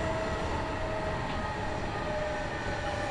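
A Kintetsu Nagoya Line local passenger train idles at Shiroko Station, station number E31, on a run from Shiohama to Shiroko, giving off a steady, even rumble with a thin sustained whine running through it, unbroken for about three seconds and free of voices.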